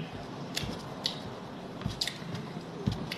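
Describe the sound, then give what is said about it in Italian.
Soft, irregular crackly squishes and crunches of a knife cutting through a crusty bread roll (panino), with several brief sharp clicks over a steady low background hiss; no talking. “e adesso tira fuori il panino panino sta tagliando il panino.”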